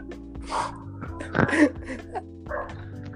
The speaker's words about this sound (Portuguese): Opa, tem uns cachorros aí.